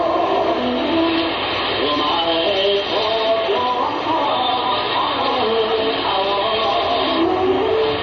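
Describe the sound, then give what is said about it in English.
A dense, continuous wash of slot machines ringing from a slot machine emporium in the Ginza on a Saturday night, with overlapping electronic chimes and jingling tones at a steady, loud level and no pause throughout. “Those are slot machines you're hearing. You can hear them for blocks.”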